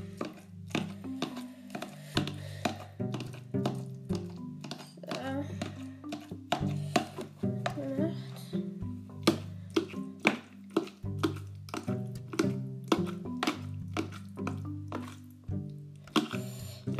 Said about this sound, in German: So, und jetzt noch mit einer Gabel das Futter schön verhacken. Damit es auch essbar ist, also damit sie es auch wirklich essen können.